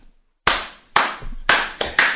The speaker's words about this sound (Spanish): Hay que, hay que, aplaudir, porque de verdad es, es un logro que tú dices, verga, no, ya, esto es otro nivel.